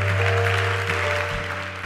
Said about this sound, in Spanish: Dele un aplauso a Dios el que lo crea.